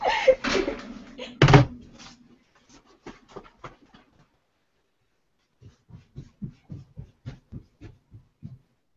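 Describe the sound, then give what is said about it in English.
A door is opened to let a family member in, with a loud rattling clunk and a sharp bang, followed by faint clicks and then a steady run of soft, regular thuds like footsteps. “I have to let my stepdaughter into the door.”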